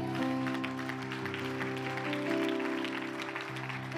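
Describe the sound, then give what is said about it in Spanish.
An audience gives a strong round of applause to the Lord, clapping steadily for several seconds, a dense, continuous crackle of clapping over sustained keyboard chords that hold underneath throughout. “Dar un fuerte aplauso al Señor”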